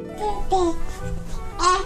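A baby babbles in short, high, wavering vocal bursts, fairly loud, with brief gaps between the sounds over about two seconds.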